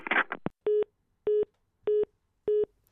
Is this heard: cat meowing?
no